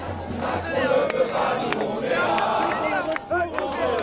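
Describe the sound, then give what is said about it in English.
A large crowd of protesters in a square in Paris, many voices chanting and shouting together in a dense, continuous roar, with scattered sharp bangs and clicks over a steady low hum. “there you can hear you can hear protesters singing, "We are here, we are here. Even if Macron doesn't want it, we're here."”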